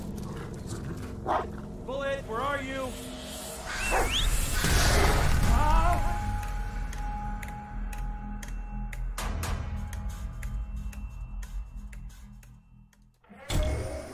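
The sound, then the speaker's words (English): A male dog gives a few short barks and whiny yelps, fairly loud, scattered over a busy background of other noises and rising tones. “He wants you. Yeah, good dog. Aren't you a handsome boy?”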